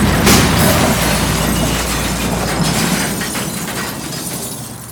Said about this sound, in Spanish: Pasa sobre unos conos que delimitan un remolque varado. El coche impacta contra el remolque, da varias vueltas de campana y cae boca abajo sobre el suelo.